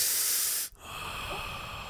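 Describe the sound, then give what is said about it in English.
A person sniffs someone's hair with a long sniffing inhale through the nose, breaking off briefly before a second, steadier breath of air follows. No one speaks. “Now come here, let me sniff your hair.”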